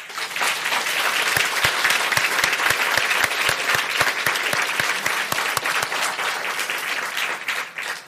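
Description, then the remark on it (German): An audience in Drehz applauds loudly and steadily for several seconds, dense clapping with a few sharper individual claps standing out, fading slightly at the very end. “Und zwar sind wir heute in Drehz und ich glaube, die Drehzer spendieren uns jetzt nochmal einen kräftigen Applaus.”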